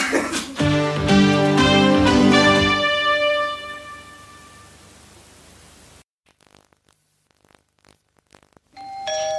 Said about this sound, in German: Hat's doch geklingelt? Geh doch nochmal gucken. Ja, ich glaube, es hat gerade geklingelt.